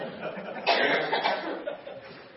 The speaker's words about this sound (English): Ever had a hacking cough?